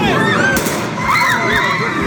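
Loud, sharp gunshots crack out over a dense, chaotic din in the streets of Ukraine, with people shouting and screaming throughout.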